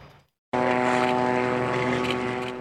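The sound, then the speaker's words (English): A steady, droning buzz of Israeli military drones overhead in Gaza, with strong even harmonic tones, cutting in abruptly after a brief silence and holding loud and constant without voices. “Under the constant buzz of Israeli drones, Palestinians in Gaza once again dig through the rubble with bare hands.”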